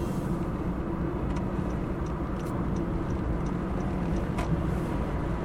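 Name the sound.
car interior driving noise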